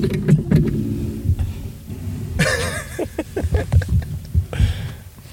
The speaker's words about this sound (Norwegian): Nå er han på stativet mitt. Beklager bråket. Jeg, jeg lurer på om han har lyst til å seie noe. Sånn, ja, det er en gås som driver faktisk og eter på stativet.